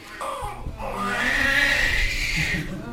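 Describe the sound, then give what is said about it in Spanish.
A newborn baby cries in one long, rising wail that rings loud, its shrill, strained voice holding steady for nearly the whole stretch with no talking alongside. “El llanto del bebé representa el sueño alcanzado.”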